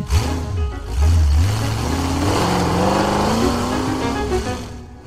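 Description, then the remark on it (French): A small car engine revs up loudly, its pitch climbing and falling in a few throaty bursts before settling into a steady higher drone, with no talking. “C'est d'ailleurs à cette époque-là qu'on voit apparaître sur nos routes des petites voitures.”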